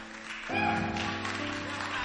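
An audience claps their hands in a dense, steady burst that starts about half a second in and keeps going, mixed with sustained chord tones from an instrument, welcoming a woman coming up to minister in song.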